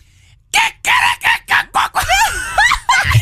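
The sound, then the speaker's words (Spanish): A person imitates a rooster crowing, starting with a run of short choppy bursts and ending in a longer warbling, wavering cry, loud with no other talking. “Es que lo que pasa es que son gallos europeos.”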